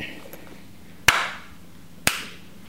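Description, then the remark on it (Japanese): Two sharp hand claps about a second apart, made as part of the two-bow, two-clap ritual at an Inari Shinto shrine, each ringing briefly with a short echoing tail, over a quiet background hush with no talking. “ここもね2杯2拍手ぱいなんですよ、えー、いわゆるお,、ね、お稲荷さんも同じ作法です軽くお辞儀をしまして”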